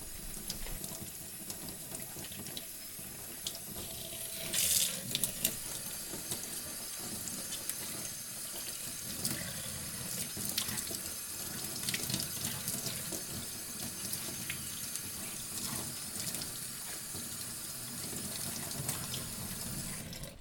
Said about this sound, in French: Quand on a gardé 5 ou 6 feuilles, on peut le laver soigneusement avec plein d'eau claire.